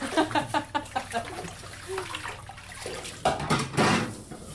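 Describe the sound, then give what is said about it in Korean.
Running tap water splashes steadily while a pile of dishes is washed after lunch service at a restaurant in Yeonsinnae, Eunpyeong-gu, Seoul, with a quick series of clattering knocks early on and louder bursts of splashing toward the end. “설거지가 쌓여 있어서 지금 하고 있습니다.”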